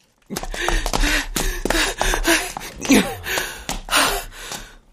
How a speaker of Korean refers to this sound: 조선 사람의 모임이 어디 있는지 알아가지고 나와 뛰기 시작하였습니다. 한인협회라는 그 간판. 숨이 차서 헐떡거리면서도 그 간판을 바라보는